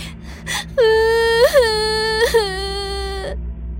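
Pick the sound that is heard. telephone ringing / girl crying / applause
girl crying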